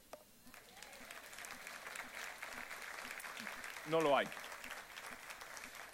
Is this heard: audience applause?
yes